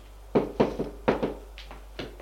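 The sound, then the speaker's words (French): Someone knocks on a door: a run of about eight dull, resonant raps in uneven clusters, firm at first and growing softer toward the end, with no voices. “On frappe à la porte.”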